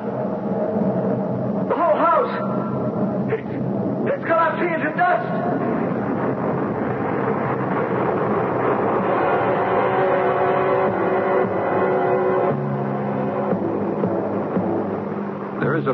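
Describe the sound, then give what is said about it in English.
A drill starts up, its motor whining upward in pitch in a couple of surges before settling into a steady, loud mechanical drone with a low rumbling hum underneath. “Professor, they started the drill.”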